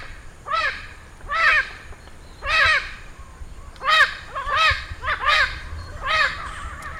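A festive amazon parrot on a street corner of a town, early in the morning, calls out in a run of harsh, raspy squawks, about seven of them in uneven bursts, loud, with no one talking.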